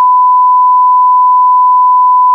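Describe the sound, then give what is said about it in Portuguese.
A loud, steady censor bleep covering a spoiler during talk about Better Call Saul holds one unbroken pitch for about two and a half seconds, starting and stopping abruptly with nothing else audible around it. “Não dá spoiler, bipa isso aí,”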